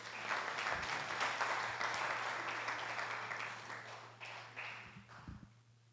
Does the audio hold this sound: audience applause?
yes